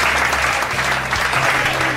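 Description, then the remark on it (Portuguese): Steady, dense audience applause welcoming a guest on the show Peladeiros fills the whole two seconds, a loud continuous wash of many hands clapping with no individual claps standing out. “que está aqui, por favor, salva de palmas.”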